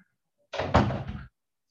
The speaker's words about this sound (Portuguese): Tá vendo? Ela não quer ficar presa, ela quer sair do Egito. Ontem quebrou o berço, ela saiu do berço. Hoje já está querendo abrir a porta.